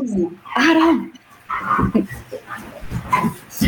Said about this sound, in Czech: Pejsek.